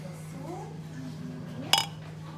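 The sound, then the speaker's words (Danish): A single bright clink of glasses touching in a toast, ringing briefly before fading, set against a low steady hum with faint murmuring in the background. “Skål.”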